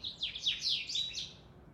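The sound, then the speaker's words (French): Birds chirp early in the morning at a large, old house, in quick, high-pitched bursts, several overlapping tweets and sweeping notes tumbling over one another for under two seconds, fairly soft, with no voices and a faint low hum beneath. “الصباح بكري في الدار عندي في لا ميزون ديالي حيت عندي الدار كبيره وقديمه كنسمع لي زوازو الطيور طا طا طا طا طا طا طا طا.”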